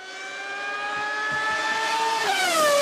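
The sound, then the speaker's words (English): A Formula One race car engine at the Grand Prix practice session at Albert Park in St Kilda screams at high pitch, climbing steadily, dropping sharply once as it shifts gear, then rising again, loud with no voices. “it is the F1 uh, Grand Prix this week”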